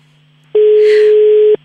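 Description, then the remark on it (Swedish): A steady telephone ringback tone sounds once for about a second, loud over a faint line hum, then cuts off cleanly, as a call is placed to a mother. “Ringer, ringer det.”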